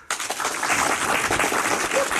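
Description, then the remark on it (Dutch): Spontaneous applause from a live audience on location in Amsterdam: many hands clapping in a dense, steady wash of crackling claps that starts abruptly and stays loud throughout. “Ah, u hoort het, een spontaan applaus.”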